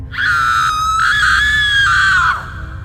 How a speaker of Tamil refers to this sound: அப்போது அந்த அலறல் சத்தம் அம்மாவோடது இல்லைன்னு தெரிஞ்சதும் அப்போ அந்த சத்தம் எங்கேருந்து வந்துச்சுன்னு யோசிக்கிறாரு இது ஒரு வேளை கனவாக இருக்குமோ அப்படின்னு